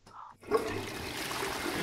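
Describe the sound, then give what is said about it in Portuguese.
A toilet flushes: a brief faint sound, then a sudden loud rush of swirling water that keeps roaring steadily to the end. “Você está ouvindo? Descarga!”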